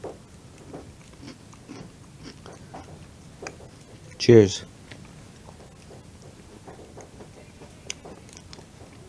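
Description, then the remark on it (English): Soft, irregular wet chewing and small clicking mouth sounds run throughout as someone eats a dessert of banana, caramel, whipped cream, graham crackers and chocolate shavings, with a voice speaking briefly and one short, louder burst of sound midway. “Try to get all in one there bite.”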